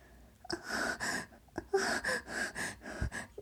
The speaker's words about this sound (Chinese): 空气稀薄之间，房间里只余下动情的喘息。